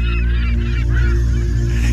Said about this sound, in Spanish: ¿Por qué pone gaviotas? te transmiten paz, solo a vos.